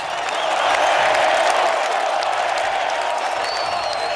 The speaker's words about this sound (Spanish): Ovación para este día que ha sabido cambiar su suerte en los acontecimientos.